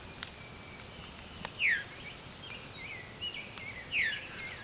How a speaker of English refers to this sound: Oh, veer. That's a veery. Veery is a type of thrush. And it's named for this viru call.